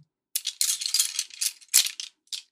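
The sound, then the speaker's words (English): Fine drawing pencils rattle and clatter in a series of quick, bright bursts as men search and rummage through a woman's bag, moderately loud, with brief pauses between the jostling clicks. “Careful with those. Those are some fine drawing pencils, gentlemen.”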